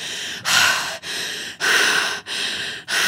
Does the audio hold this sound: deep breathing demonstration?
yes